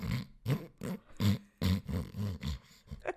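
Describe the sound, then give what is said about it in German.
A voice imitates a woman's irregular, off-rhythm snoring with a quick, uneven string of about seven rough, snorting grunts of varying length, loud, with no words spoken. “Aber wenn jemand aus, nicht im Takt ist, was sein Schnarchen betrifft, so wie meine Frau zum Beispiel, das hört sich dann ungefähr so an.”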